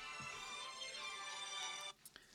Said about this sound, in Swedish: Fan, det ringer. Ett ögonblick.